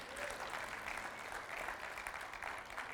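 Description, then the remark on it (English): A church audience claps together during a sermon in a steady, dense burst of applause lasting the whole moment, many hands blending into a continuous crackling wash without any voices on top. “And I know, uh, you can clap if you want, yeah.”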